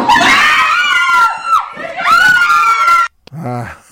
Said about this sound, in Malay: Menjerit-jerit.